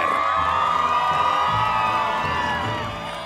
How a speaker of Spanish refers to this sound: Un aplauso para nuestras gloriosas trapecistas.